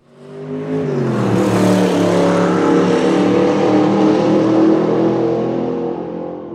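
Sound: petrol car engine revving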